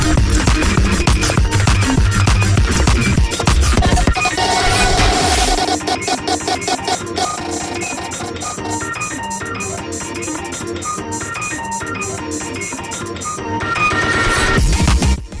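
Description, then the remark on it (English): A loud, dense breakcore track with frantic chopped drum breaks and harsh, glitchy layers; the heavy low end drops out around the midpoint, then the full onslaught surges back near the end. No one speaks. “track's called …. You know, it's like sometimes you just hear a really great artist and you just got to share their music”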